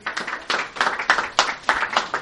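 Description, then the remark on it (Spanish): Audience applause for guests being called up to join the host, in a steady, rhythmic beat, with bright, sharp bursts of clapping about three times a second, fairly loud and continuous with no talking over it. “El aplauso para ellos, venga.”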